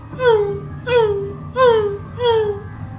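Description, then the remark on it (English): Someone vocally imitates a hurt puppy's whimpering: four high, drawn-out whines, each sliding downward in pitch, repeated at a steady pace over a low background hum. “like it's a little puppy or something, like someone's beating a little puppy or whatever. Or there's like a you know a hurt dog somewhere”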